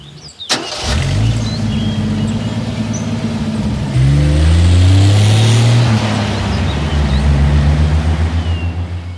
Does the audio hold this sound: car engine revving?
yes